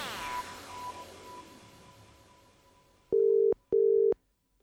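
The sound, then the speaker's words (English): A telephone tone for an outgoing call sounds as two loud, steady mid-pitched beeps separated by a short pause, following a few seconds of faint, fading background noise. “I'm going to make a phone call, and if it works, I shall thank the gods.”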